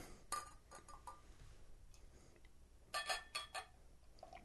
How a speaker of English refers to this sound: They do suggest getting the yeast in there. They say uh, pour pour two thirds until it's glass. Swirl what's left around the bottle. Resume pouring in all its hazy glory. So let's get the rest of this in there.